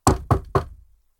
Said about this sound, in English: Balance just walks over, knocks on the door.